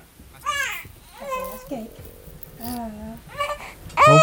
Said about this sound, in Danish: Hov, ah. nu græder baby. Ah. ja. Sådan er det med babyer. Man kan jo ikke øh, styre dem.